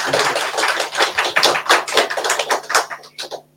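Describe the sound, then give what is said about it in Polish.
A smattering of audience applause welcoming a guest, Professor Jerzy Jarniewicz, steady and moderately loud, with individual claps audible in a rapid uneven patter before it fades out near the end. “Wielkie brawa dla naszego gościa.”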